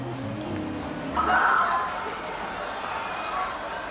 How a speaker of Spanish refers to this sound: Hasta que de repente una ligera lluvia de verano comienza a rodar sobre nuestros invitados.